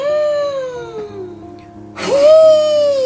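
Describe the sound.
A storyteller's voice imitates a powerful gust of blown breath that opens a city gate: a long, falling, moaning whoo, then a louder, breathy rush of air rising into another sustained howl.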